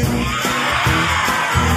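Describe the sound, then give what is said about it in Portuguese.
A group of voices roars together like lions, a loud, sustained growling shout with rhythmic bursts, as a crowd imitates a lion's roar on cue during a song about animals. “Ele fez leões que.”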